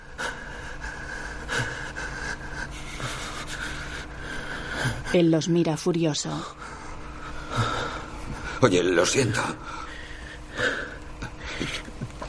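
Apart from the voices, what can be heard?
agitated heavy breathing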